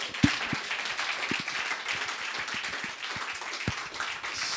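A crowd applauds with dense, steady clapping throughout, a few sharper individual claps standing out above the continuous patter.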